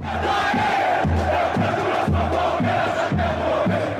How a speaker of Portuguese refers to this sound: Quando a gente viu aquelas 250 pessoas no barco, incentivando, gritando, pulando, cara, foi incrível.